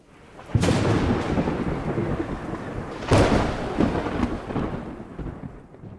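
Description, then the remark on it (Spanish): Heavy rain pours steadily while two deep rumbles of thunder roll in, one near the start and another midway, with a dense, continuous downpour throughout and no voices. “La lluvia dispersó la jauría que me esperaba allá abajo.”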